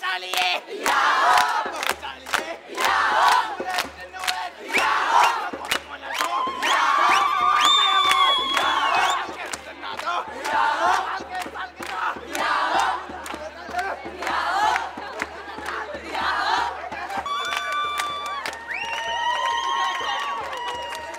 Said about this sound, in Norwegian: Her hørte du altså noen gledesscener fra hovedflyplassen i Israel i eh, Tel Aviv, når 83 jøder fra Etiopia ble tatt imot på flyplassen.